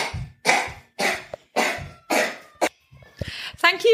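A child with a cold coughs repeatedly, six or seven harsh bursts in quick succession, ending with a brief wheezy, throaty sound.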